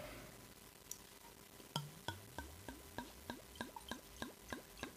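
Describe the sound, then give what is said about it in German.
Liquid glugs steadily out of a bottle in a quick, regular series of gurgling pulses, fairly quiet, as wine is poured into wine glasses. No one speaks. “Geht's, ja, komm, schenk ein.”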